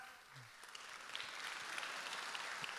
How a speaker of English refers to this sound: You can clap.